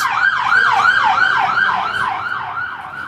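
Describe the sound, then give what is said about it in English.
An ambulance siren wails in fast, repeating up-and-down sweeps, loud at first, then fading slightly as it moves past over a low road rumble. “It's funny that that was in a room ambulance. I think I know the driver of that.”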